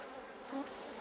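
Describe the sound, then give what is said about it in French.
A bee buzzes steadily for about a second, a dense droning hum with a slight wavering pitch and brief louder swells, with no voices present. “Il y a 20 000 espèces d'abeilles dans le monde.”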